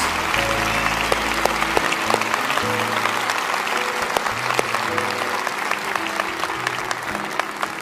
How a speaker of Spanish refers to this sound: Dele un aplauso más a todos esos que están poniéndose de pie y les animamos.